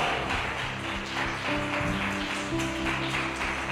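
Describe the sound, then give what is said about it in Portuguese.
A church audience at a morning service claps steadily and continuously in a dense wash of applause, with sustained musical tones humming underneath. “Aqueles que foram chamados para reinar, aplaudam, aplaudam, aplaudam.”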